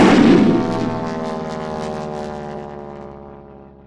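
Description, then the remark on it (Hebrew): A heavy explosion of a bomb dropped from an airplane bursts out with a loud low thump, then rumbles and rings on, slowly fading over several seconds with a long sustained roar. No one speaks. “מנחם, זאת פצצה, תתכופף!”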